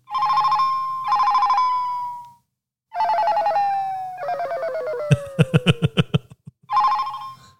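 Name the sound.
phone ringtone played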